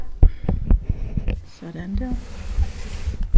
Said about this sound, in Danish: Nå jo, Jamen, det er fordi mikrofonen står på zombiebogen. Jeg flytter lige mikrofonen. Ja.